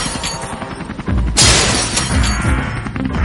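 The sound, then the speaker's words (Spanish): A loud glass skylight shatters in a sudden bright crash as several people dressed as ninjas break in through the roof glass, followed by a scatter of falling shards and debris ringing for a couple of seconds. “Están entrando por los cristales del techo varios cabrones vestidos como ninjas.”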